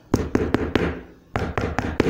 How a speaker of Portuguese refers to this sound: Certo dia, uma família composta por um homem, uma mulher, um menino e um rapazinho estavam em casa e eles ouviram bater a porta.